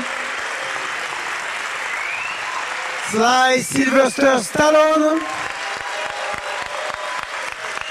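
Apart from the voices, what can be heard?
audience applauding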